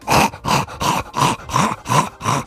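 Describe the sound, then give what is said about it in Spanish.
A person imitates the snorting, wheezy breathing of a flat-faced dog whose soft palate blocks its airway: seven rhythmic, raspy bursts of breath in quick succession, fairly loud, with no talking. “Pero en el caso de estos perros, ese velo del paladar es como una manta zamorana que le tapa la entrada. Y por eso están todo el día.”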